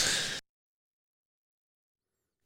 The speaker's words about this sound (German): Ich muss vor allen Dingen husten.